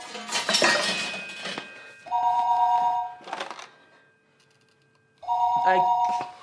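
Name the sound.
telephone ringing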